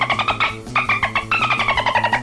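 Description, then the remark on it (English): A voice imitates dolphin chatter as an "interrupting dolphin" in a knock-knock joke: a quick, continuous run of squeaky, clicking chirps in a pulsing rhythm, high-pitched and fairly loud, lasting about two seconds with no talking. “Interrupting Dolphin.”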